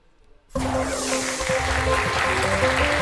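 After a brief hush, loud clapping and cheering burst in suddenly and continue steadily, mixed with music playing underneath.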